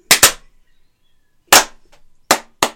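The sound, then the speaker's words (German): Loud, sharp hand claps recorded with a microphone, about five in all: a quick pair at the start, then single claps after a pause, spaced irregularly, each a crisp snap with a short decay and no voices. “Okay, ich würde sagen, wir klatschen erstmal.”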